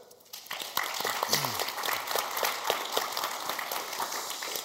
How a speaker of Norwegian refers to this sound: Så Frank Johnsen, ordfører, ordførerkandidat fra Senterpartiet. Applaus.